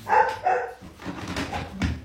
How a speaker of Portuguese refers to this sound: ela ouviu um barulhinho aqui, provavelmente. É normal. Mas então, como eu ia avisar também, sempre tem esses eventos, podem acontecer. Um, um latido.